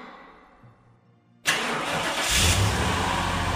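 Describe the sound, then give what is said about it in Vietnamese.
After a quiet moment, a woman starts a vehicle's engine; it abruptly fires up and settles into a loud, steady running roar, swelling slightly as she climbs on and drives straight off. No one speaks. “Nói xong, bà nổ máy leo lên xe chạy thẳng.”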